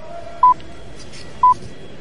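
Two short, steady beeps at a mid-high pitch, spaced about one second apart, standing out clearly over a low background hiss: a radio time signal marking 6:30 a.m. in Buenos Aires and 10:30 a.m. in Europe.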